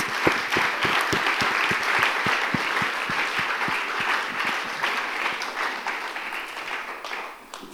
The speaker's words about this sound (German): Hey, ein Applaus für meine zwei Judges.